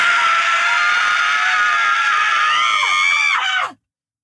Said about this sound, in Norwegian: Nå skriker vi alt vi har. samtidig? Ja.